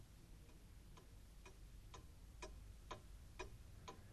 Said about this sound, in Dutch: Is het jou wel eens opgevallen hoe hard een klok tikt als er een dode in huis is?